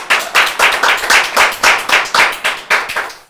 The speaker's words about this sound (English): So let's continue with and, and give you another round of applause. Thank you so much.